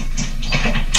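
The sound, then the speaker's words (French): A cat in the background makes loud rustling and rumbling noises near the microphone, in a few uneven bursts that swell sharply at the very end, with no talking. “Il y a du bruit derrière, c'est impressionnant. C'est mon chat.”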